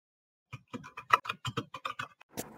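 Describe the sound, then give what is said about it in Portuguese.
A quick run of about a dozen sharp, uneven clicks from keys being typed on a computer keyboard as someone searches, fairly clear, with no voices over them. “Para de pesquisar, isso não importa, tô ouvindo seu Eu teclado.”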